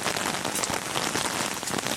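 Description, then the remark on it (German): Steady rain pattering densely on a surface, a continuous hissing wash with countless tiny droplet taps and no voices; a sudden, intense shower after sunshine, heard from under the roof of a house on a Hallig. “Und was eben noch wundervoller Sonnenschein war, das ist nun Regen, die nichts Gutes.”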